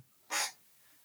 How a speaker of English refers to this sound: I didn't fart. That was my chair. I'm not that nervous. can you tell your Can you tell your chair to stop farting, please?